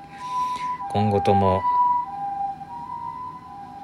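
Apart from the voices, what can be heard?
ambulance siren passing by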